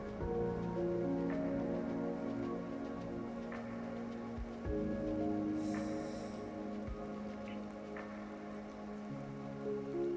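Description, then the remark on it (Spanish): Steady rain falls continuously, a dense wash of patter with a low rumbling hum underneath and a few soft thumps and clicks scattered through, no voices present. “Sigue lloviendo.”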